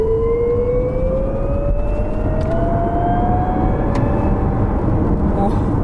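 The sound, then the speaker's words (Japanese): An electric car's synthetic acceleration sound, made by its Active Sound Control in sport mode as the driver presses the accelerator: a smooth, futuristic whine that climbs steadily in pitch over several seconds, layered over a constant low road rumble. “スポーツモードでこう加速されした時に、すごくこう音が変わるのね、うん、音の演出みたいなやつがあってまずモードをスポーツ、えー、スポーツにして、はい、で今これ普通に走ってる状態ね、はい、でここから今スイッチアクティブサウンドコントロールのスイッチ入れて、はい、踏み込みます”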